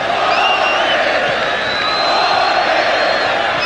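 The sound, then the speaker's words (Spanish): A stadium crowd of Sporting Cristal football fans roars out olé chants during a match against Universitario, with Sporting Cristal leading 1-0, a dense, steady wall of massed voices at full volume with faint high whistles drifting over the top. “Gritos de ola por los hinchas de Sporting Cristal.”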